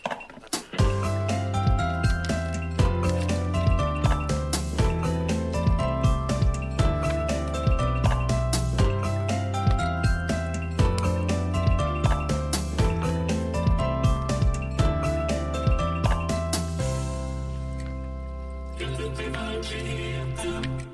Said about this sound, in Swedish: jag tycker vi går rakt in i vignetten